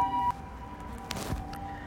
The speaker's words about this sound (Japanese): 救急車ちょっと待ってね